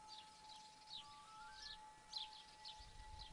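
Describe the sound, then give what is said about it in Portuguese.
A house sparrow chirps in a steady series of short, bright calls, about one every half second, over a faint constant hum and low background rumble. “Pardal.”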